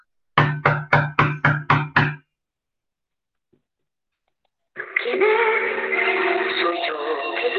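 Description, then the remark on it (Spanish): A wolf knocks on the door of a grandmother's house: seven quick, evenly spaced, loud knocks on a wooden door, followed by a short silence before a voice begins speaking. “Cuando el animal llegó a la casa de la abuela, llamó a la puerta.”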